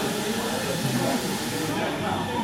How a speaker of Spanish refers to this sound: Acaban de prender ahí como una licuadora al fondo.